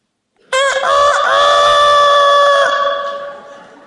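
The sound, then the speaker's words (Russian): A person's voice imitates a rooster crowing at sunrise: a single loud call that jumps up, holds a long strained note for about two seconds, then trails off, with no other sounds around it. “Солнце вышло, все такие, Петух такой.”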